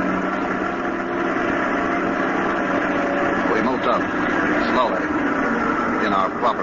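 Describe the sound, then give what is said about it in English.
A truck in a convoy idles with a steady, loud mid-range rumble, pulling forward through a front gate past guards without pause; indistinct voices murmur beneath the continuous motor noise. “Just as we caught up with the Jerry convoy, the truck ahead pulled through the front gate.”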